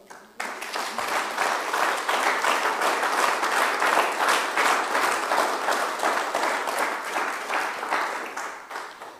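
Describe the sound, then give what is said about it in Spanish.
A church audience bursts into sustained applause for the Lord, dense overlapping claps starting abruptly and holding steady at a loud level for several seconds, with no one speaking over it. “Dele palmas al Señor.”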